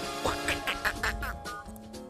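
A duck quacks in a quick run of about six nasal, raspy calls, fairly loud and evenly spaced, with no one talking over them.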